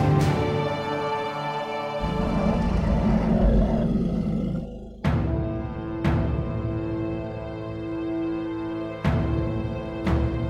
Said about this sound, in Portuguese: Você observa, Clank, que logo atrás o Bugbear você enxerga um lobo que está rosnando por um goblin que está pendurado de ponta cabeça por, um, por uma corda.